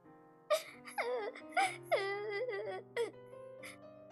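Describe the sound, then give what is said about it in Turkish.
A child whimpers and sobs in short, wavering bursts, with soft music humming steadily underneath; the crying is moderately loud. “Çocuğun ağlama seslerini duyan bir tavşan yaklaştı yanına.”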